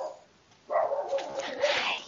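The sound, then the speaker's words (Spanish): A dog lets out a single drawn-out bark after a brief quiet moment, moderately loud, with no one talking. “Y el perro, siendo el último adiós.”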